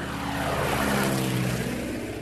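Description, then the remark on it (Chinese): An airplane drones overhead, a steady, loud rumble with low humming engine tones and a broad hiss that holds constant for the whole clip, with no voices. “飞机飞过天空会留下印记”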